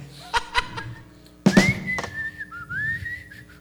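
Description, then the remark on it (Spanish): A person whistles a short song melody, a clear sustained tone sliding between notes, broken by a few breathy puffs and short bursts near the start. “este tipo estaba silbando una canción”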